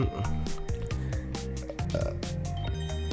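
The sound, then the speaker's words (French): A man burps repeatedly, a string of low, croaking belches in quick succession, loud and continuous for a few seconds with no talking. “le gars, il rote.”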